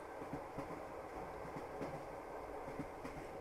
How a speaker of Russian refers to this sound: Друзья, наверное, вы уже заметили звуки на фоне, стук колес, покачивание вагонов. Давайте их послушаем немножко.